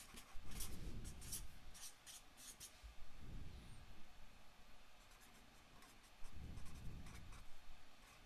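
Pens scratch across paper in uneven bursts as quiz players write down their answers, fairly soft, with short pauses between strokes and no voices.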